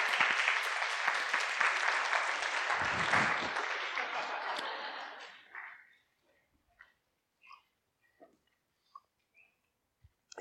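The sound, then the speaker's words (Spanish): A crowd applauds with dense, steady clapping for about five seconds before it fades out, leaving a few scattered, isolated claps and faint sounds in the quiet afterward. “Pueden pasar, un aplauso a ellos, gracias.”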